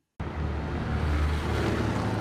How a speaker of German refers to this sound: Ein Sommerabend in Rom. Es ist schon spät. Ein paar Autos fahren durch die Unterführung unter den Gleisen nahe des römischen Bahnhofs Termini.